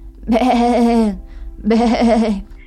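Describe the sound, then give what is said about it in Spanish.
A human voice imitates a goat's bleat twice, voicing Caribú, a goat character in a children's story. Each call is drawn out and wavering, loud, with a short pause between them. “Caribú practicaba todos los días, pero lo único que le salía era be”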